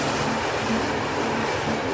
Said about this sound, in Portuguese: Considerei sentando no teto do trem, enquanto a composição se arrastava para o centro.